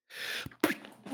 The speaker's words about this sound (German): Entschuldigung. wer, wer spuckt denn hier so? Gesundheit